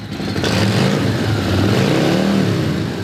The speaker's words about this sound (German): Nichts klingt wie eine Harley, meint Bill. Das ist der Sound wahrer Abenteuer.